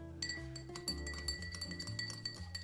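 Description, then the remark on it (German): A spoon briskly stirs iced coffee in a glass, the ice cubes already melted, producing a rapid, steady series of bright clinks and rings against the sides, fairly loud, with no talking. “es kräftig einfach umrühren. Ich habe das Glas vorher mit ein paar Eiswürfeln versehen, damit der Kaffee schneller abkühlt und das ganze Getränk ein bisschen kälter ist.”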